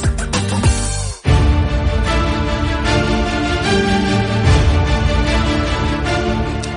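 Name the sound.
background music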